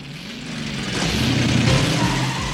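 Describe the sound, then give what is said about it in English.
Loud car engines roar at high speed, their pitch climbing and wavering as they rev hard, with a steady wash of road and wind noise and no voices. “In the popular imagination, the LA River is a place of death and destruction and high speed car chases, courtesy of Hollywood.”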